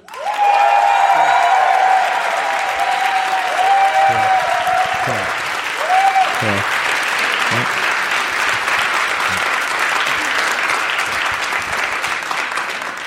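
Sustained live audience applause fills the room, a dense steady wash of clapping with some cheering and whistles at the start, fading slightly toward the end.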